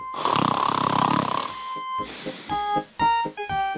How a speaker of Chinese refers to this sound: 呼！他们小声的打着呼，也在爸爸的背上睡着了。呼噜飞机飞走了，鼹鼠爸爸的飞机飞走了。哈哈，好了，宝贝儿们，这就是今天的绘本故事《小熊宝宝情商绘本》第四个故事：鼹鼠爸爸的鼾声。